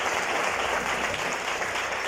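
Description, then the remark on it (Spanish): A church crowd applauds steadily for Christ Jesus in the afternoon, a dense, continuous wash of many hands clapping at once with no individual claps standing out, holding an even loudness throughout. “Denle un aplauso a Cristo Jesús, por favor, esta tarde.”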